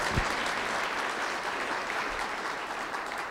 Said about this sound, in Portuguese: Você podia até aplaudir o Senhor se tu estivesse aí, mas você está entendendo a palavra?